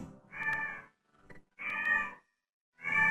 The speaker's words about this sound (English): so the cat's going off, so I gotta do it. Yeah. Meow. She's my backing vocals. Meow.